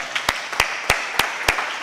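An audience applauding during a church offering with envelopes, with sharp claps falling in a steady beat, about five in under two seconds, over a continuous hiss of scattered clapping. No voices are heard.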